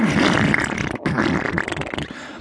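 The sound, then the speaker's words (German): A loud, booming fart from Krato the volcano rumbles for over two seconds, breaking off briefly partway through before resuming with a raspy, sputtering tail. No talking. “dröhnt es aus Kratos Popo.”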